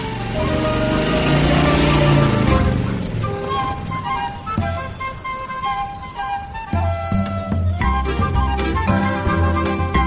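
motorcycle engine accelerating away

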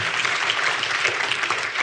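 round of applause

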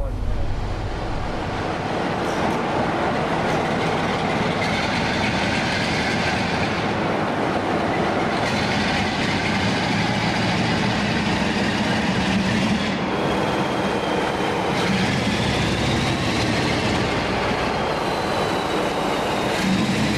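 train running on rails

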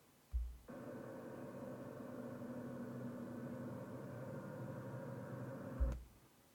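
car driving

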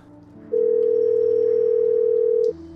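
telephone ringing tone

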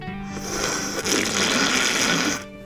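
slurping a drink

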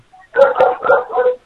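dog barking

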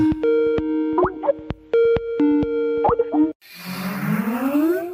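telephone dialing and ringing

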